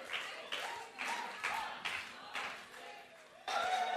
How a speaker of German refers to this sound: Okay, ich versuch's. Äh. Okay, feuert ihr mich an? Okay. Zählt ihr mit? Eins, zwei, vier, lauter.